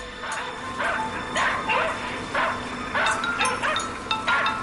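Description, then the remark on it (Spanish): Several Soviet dogs bark in quick, uneven bursts, yips and short woofs overlapping, with a few whimpery tones mixed in against a steady background hum. “Buenos perros soviéticos.”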